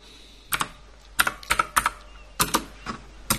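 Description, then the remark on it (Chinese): Irregular bursts of keyboard typing, about a dozen crisp key clicks in uneven clusters, some doubled in quick succession, with short quiet gaps between them and no voices, as the name of the game 率土之滨 is typed in. “咱们把名字打上去，率土之滨。”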